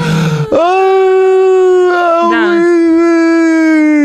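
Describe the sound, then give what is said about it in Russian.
A voice imitates the wailing of women at a funeral in Uzbekistan: a sustained, loud, quavering howl holding one pitch with a few wavering dips, preceded by a brief breathy onset. “Ну, примерно так, только на своем языке, и они, они так подвывают.”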